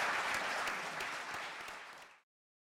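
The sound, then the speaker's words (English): Steady applause from an audience for the panelists at the IntraFish Seafood Investor Forum, dense crackling claps holding for about two seconds before cutting off abruptly, with no voices over it. “Could we please have a round of applause for our uh, panelists?”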